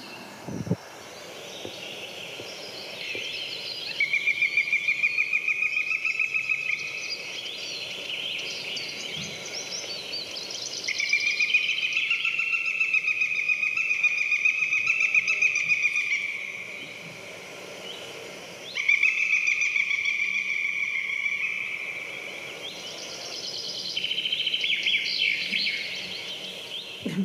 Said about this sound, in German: ich würde jetzt gerne einmal den Habicht spielen lassen, weil ich glaube, auch den Ruf hat man schon gehört.